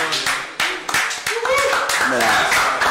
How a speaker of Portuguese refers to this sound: Palmas